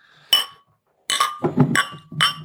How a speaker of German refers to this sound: Also jeder, der gerade einen Blueberry Bunch hat, kann gerne anstoßen.